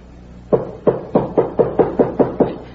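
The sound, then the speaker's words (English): A rapid, steady series of about eight firm knocks on a door, evenly spaced and fairly loud, with no voices and only faint background hum between them. “Whoever it is has seen the light. He knows there's somebody here. I'll answer it myself.”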